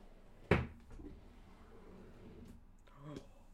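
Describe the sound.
A sharp wooden clunk of a drawer opening, followed by a few faint rattles and clicks of rummaging through the drawers, with a brief voice near the end.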